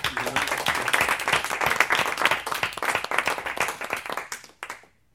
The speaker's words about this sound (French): Allez, on s'applaudit tous.